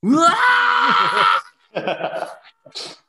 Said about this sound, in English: you can hear the screaming of, of … from inside the, the room